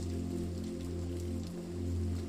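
Steady, continuous rain falling with a soft hiss, layered over a low, sustained droning hum; no voices, and the level stays even throughout.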